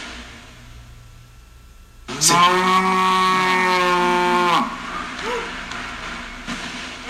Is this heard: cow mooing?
yes